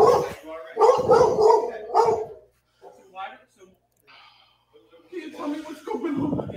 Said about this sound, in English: Wait, is that dog? Is that their dog?